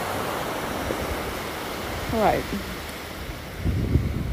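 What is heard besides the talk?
waves on a beach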